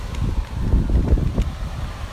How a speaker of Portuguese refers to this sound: Olha, então um vento enorme.